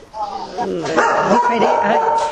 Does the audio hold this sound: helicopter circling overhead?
no